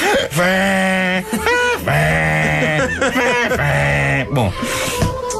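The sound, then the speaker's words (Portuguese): A harmonica is blown and drawn through by a person breathing with it in their mouth, in a series of loud, reedy chords. The wavering, bending tones come in several breathy bursts with no one talking. “Agora, os únicos sons que eu conseguia retirar de uma harmónica eram os da minha pessoa a respirar com ela na boca”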